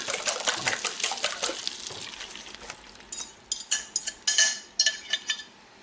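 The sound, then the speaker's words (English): Eggs being whipped in a bowl: a rapid, steady run of light clicking and scraping strokes, then a series of sharper, separate clinks and taps. No one speaks. “The more you whip them, the lighter they'll be.”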